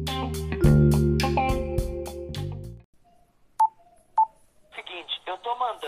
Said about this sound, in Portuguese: depois a gente responde depois da vinheta. Solta a vinheta aí, meu bom amigo!